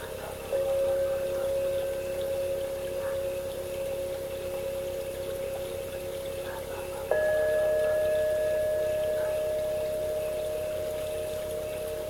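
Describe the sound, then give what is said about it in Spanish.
Water flows in a steady, even rush throughout, with a sustained hum over it that steps up in pitch about midway, then holds. No one speaks. “Ve sintiendo la tranquilidad de tu ambiente el sonido del agua”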